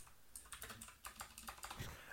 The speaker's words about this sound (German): Ja, ich kann nicht tippen